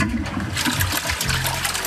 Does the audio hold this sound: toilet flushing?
yes